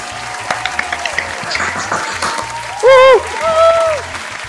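Dense, steady applause from a group, celebrating the legalization of abortion in Argentina on 30 December 2020, fills the first few seconds, then gives way to a couple of loud, wavering celebratory calls over a faint rhythmic thump.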